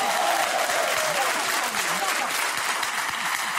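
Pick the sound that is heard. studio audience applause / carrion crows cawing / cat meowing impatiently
studio audience applause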